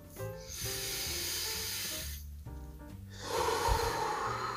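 A long, airy breath drawn in, then after a short pause a fuller, louder breath let out, both breathy over soft sustained background music.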